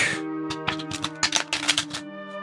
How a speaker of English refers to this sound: Sylvie will pull those cards out, gather everyone around the coffee table, and set them down in front of her. As you do, the faint after image of Zellara appears shuffling the deck